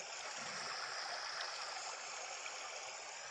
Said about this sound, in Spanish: La lluvia era cada vez más fuerte.